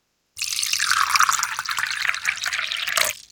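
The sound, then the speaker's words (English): Tea pours steadily into a cup for about three seconds, a continuous splashing stream that stops cleanly, with no voices around it. “Now, pour yourself a cup of tea and get comfortable.”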